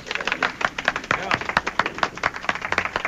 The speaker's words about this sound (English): We have a little studio audience here. Could you tell us by applause?